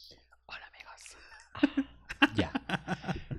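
Crunching of a potato chip being eaten: faint breathy rustling at first, then a quick run of loud, crisp bites and chews.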